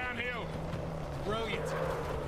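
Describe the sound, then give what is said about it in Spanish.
A motorboat engine in video game gameplay drones steadily with a low, continuous hum as the boat is driven, while voices talk over it. “Hombre, el primero con, conducir la, lancha.”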